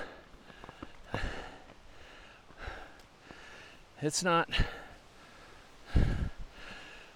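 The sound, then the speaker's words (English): Heavy breaths of someone hiking uphill over steep terrain come in repeated rough gusts at an uneven pace, with a few brief spoken words breaking in partway through. “there are parts of this hike as you look at the terrain and you hear my breathing increase.”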